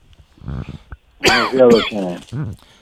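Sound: coughing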